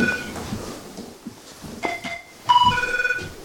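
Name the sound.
telephone ringing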